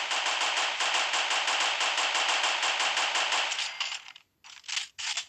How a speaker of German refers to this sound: Nein, nicht die ganze Zeit schießen.